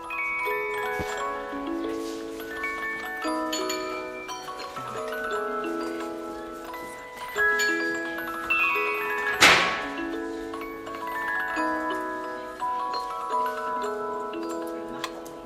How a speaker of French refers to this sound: je pense que les parents ont dû s'apercevoir qu'il y avait une sorte de complicité entre le timbre, le son d'une boîte à musique qui est très particulier, et la sensibilité des enfants.